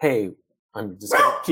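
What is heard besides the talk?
dog barking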